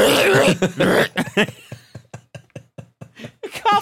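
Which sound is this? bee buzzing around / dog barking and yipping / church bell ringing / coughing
coughing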